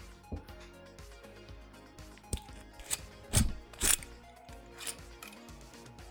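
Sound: whisky bottle being opened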